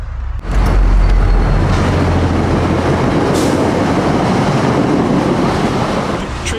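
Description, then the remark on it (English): A commuter rail train roars through the Newtonville commuter rail station in Newton, Massachusetts, at about 55 miles an hour, running over a Chibi Moon placed on the rails: a loud, sustained rumble with heavy low-end hum and rushing, wind-like noise that stays steady after a sudden onset. “I took Chibi Moon, I placed her on the rails right before a commuter rail train came.”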